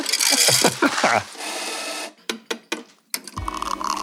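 A coffee machine grinds beans with a loud, rasping whir that pulses rhythmically, pauses for a few sharp mechanical clicks, then settles into a steady, lower humming drone.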